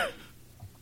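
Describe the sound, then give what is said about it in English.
A single quick sneeze, a sharp breathy burst right at the start that fades within a split second, leaving near silence with a faint low murmur afterward. “Bless you.”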